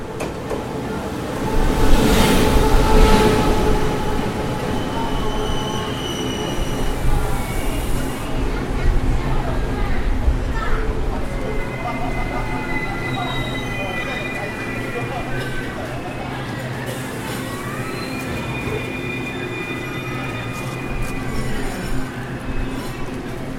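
A train arriving at a station, its carriages passing one by one in front of the platform from one side to the other in a loud, broad rush, then slowing with drawn-out, high-pitched brake squeals over a steady rumbling hum until it comes to rest.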